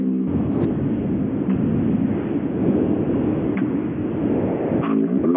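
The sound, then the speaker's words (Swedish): A Japanese rally car's engine roars loudly and continuously at the start, a dense low rumble with rising revs toward the end, and no voices over it. “Lyssna på starten nu Sebbe.”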